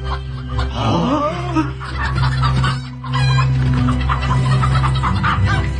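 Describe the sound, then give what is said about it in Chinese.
Two fighting cocks, one a small yellow rooster, cluck and squawk in a busy, agitated burst during a cockfight staged at a chief's banquet, with a crow rising near the start and dense, continuous fowl calls throughout, fairly loud. “眼看那只小黄公鸡就要支撑不下去了，小琪示意马马肚吹起了黑牛角，两只斗鸡停止了厮杀，亲密地靠在了一起。”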